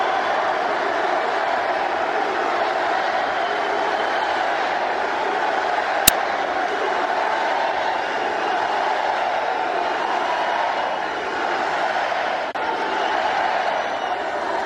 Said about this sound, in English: Trump in Erie, Pennsylvania. Just listen to this in clip seven. Trump takes the stage. The roar of the crowd.